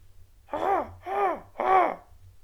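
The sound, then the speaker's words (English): A solitary crow caws three times in a steady, evenly spaced rhythm, each call harsh and drawn out, heard alone over a faint low background hum, at a remote homestead in rolling mountains under low clouds. “No sounds to speak of except a solitary crow.”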